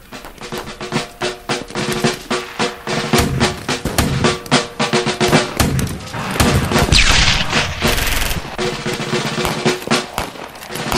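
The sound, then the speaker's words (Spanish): Heavy cannon blasts mixed with rapid rifle gunfire, a dense, chaotic barrage of loud booms and cracking shots that rolls on without pause, from men in Confederate and Union uniforms shooting at each other at point-blank range about 50 metres from a motel window. “Tras un reparador sueño, se despertó sobresaltado por el ruido de un cañonazo y después otro.”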